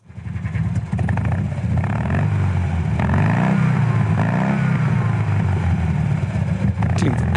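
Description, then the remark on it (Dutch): A Fiat 500 (Cinquecento) with a small two-cylinder engine revs up loud, its throaty, uneven chug rising and falling in pitch over several seconds with no one talking. “eigenlijk ook best nog wel indrukwekkend tijdens zo'n Fiatje 500 Ja, zo'n tweecilindertje heeft iets raars, hè?”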